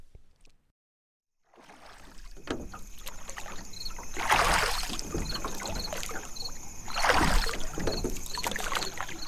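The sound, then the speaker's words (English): Oars dip and pull through calm lake water in a slow rhythm, with two louder splashing strokes standing out, a rowboat gliding with steady trickling and lapping between strokes. “Nick and his father got in the stern of the boat, and the Indians shoved it off, and one of them got into row.”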